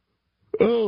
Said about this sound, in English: a third yawn in one segment. I need a nap.